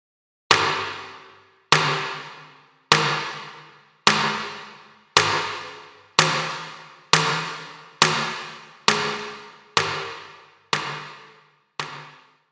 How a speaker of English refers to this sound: Reverb, chamber.